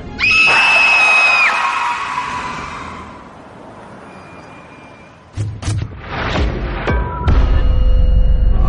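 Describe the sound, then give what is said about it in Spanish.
A person lets out a sudden, loud, high-pitched scream of fright lasting about a second as a hand lands on their shoulder, followed by a fading rumble and then a burst of noisy, clattering commotion. “Noto como una mano se posa en mi hombro no puedo evitar frenar en seco y gritar.”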